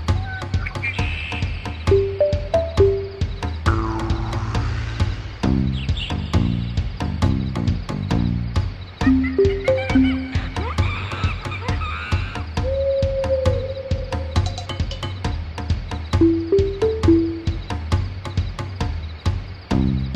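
An upbeat jungle-themed video game music track plays alone, with a steady tribal percussion beat, a deep bass line, bouncy plucked melody notes and croaking, frog-like accents throughout, no vocals.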